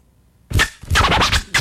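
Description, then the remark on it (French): After a half-second of near silence, a music track abruptly begins with loud, bright, scratchy bursts in a choppy rhythm, with no voices. “et on s'écoute tout de suite un autre morceau.”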